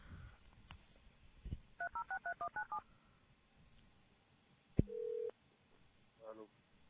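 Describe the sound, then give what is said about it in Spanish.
A rapid run of about nine touch-tone keypad beeps dials a phone number, followed by a click and a brief steady tone, all thin and phone-line sounding against a quiet background. “vamos a hacer una llamada a uno de los perros de Boston.”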